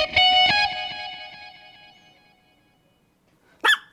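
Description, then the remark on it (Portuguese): A ringing, chime-like tone fades out over a few seconds, then one sharp, loud yap from a small dog sounds right at the end. “E o cachorrinho aí tá dizendo que é hora de pegar o saquinho, ah, levar ele para dar uma passeada, mas não esquece, viu?”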